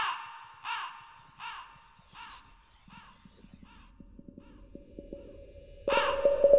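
A crow caws harshly about five times in a steady rhythm, then falls quiet over a low rumbling background before one last loud caw near the end.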